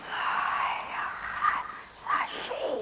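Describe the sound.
A voice imitates Harry Potter's hissing snake speech, producing breathy, sibilant whispered sounds in uneven bursts for about three seconds, moderately loud, with no clear words.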